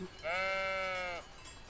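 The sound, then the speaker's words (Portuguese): A single sheep bleats once, a sustained, wavering baa lasting about a second, clear against quiet outdoor background noise, in green mountain country of County Mayo, Ireland. “Montanhas cobertas de vegetação, estradas com paisagens sempre verdes e as ovelhas que vão sempre aparecendo”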